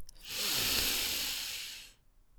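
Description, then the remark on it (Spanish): A long, deep breath drawn in through the nose during a guided breathing exercise, a soft airy hiss that swells and fades over about two seconds, with no talking. “Y vamos a comenzar respirando muy profundo, tomando aire por nuestra nariz.”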